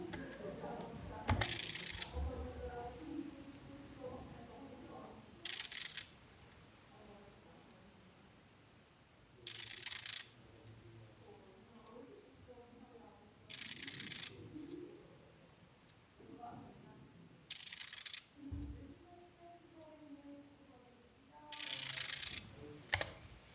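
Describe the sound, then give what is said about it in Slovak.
A refreshable Orbit braille display's cells flip with a short burst of rapid mechanical clicking as it automatically scrolls a line of text, repeating about every four seconds, six times in all, with quiet background noise between bursts. “Rovnako ako pri fokuse, aj pri orbite sa dá zapnúť automatické čítanie, teda automatické posúvanie hm, textu, čo teraz urobím, aby ste počuli, ako sa postupne ten riadok bude hm, prepínať, respektíve meniť tie bunky.”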